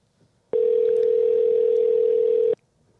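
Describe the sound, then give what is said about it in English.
A single steady two-second ring tone heard through a phone line while redialing a call that had dropped, starting and stopping abruptly, with quiet line hiss before and after and no talking. “As they used to say, one ringy dingy.”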